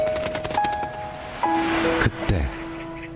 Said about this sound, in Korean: 얘야, 저 새가 무슨 새라고 했지? 몇 번이나 대답해야 아시겠어요? 까치요, 까치라고요.